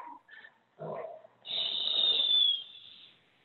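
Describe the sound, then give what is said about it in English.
A dog named Winter makes a few short yips, then lets out one long, high-pitched whine that holds steady for over a second before trailing off. No one speaks. “okay, that, that dog's going to serious.”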